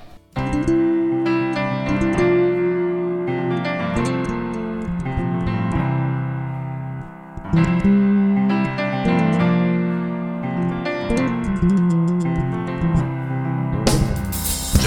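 An instrumental song opening from an album plays steadily, with full, sustained melodic lines and a brief dip midway before swelling again, ending on a bright burst.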